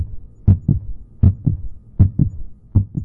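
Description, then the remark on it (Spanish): A deep, thumping heartbeat repeats steadily in paired lub-dub pulses, four beats evenly spaced over a low background hum, prominent with no voices. “Es el latido de su implacable corazón.”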